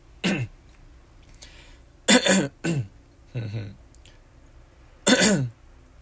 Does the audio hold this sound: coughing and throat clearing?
yes